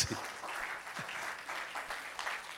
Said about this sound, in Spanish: Le aplauso fuerte al Señor